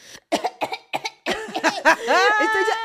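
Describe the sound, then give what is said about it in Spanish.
A person puts on a fake cough while leaving a message saying they cannot come to work: three or four short, forced coughs in quick succession, then a longer, strained, voiced cough-like groan, fairly loud. “Y entonces dice …, y luego tose.”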